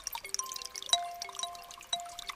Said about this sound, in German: die ganze Zeit dieser Klang der Wassertropfen. Ein tolles Geräusch. Man hörte, dass alles in Bewegung war. So klingt für mich der Frühling.